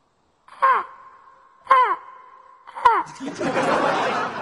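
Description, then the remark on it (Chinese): A person imitates a crow with three harsh, downward-sliding caws at a steady pace, followed by a burst of noisy rustling or breathy sound. “你护理我呀，我心脏病人，还得让我自己学乌鸦，欺负我没乌鸦音效。”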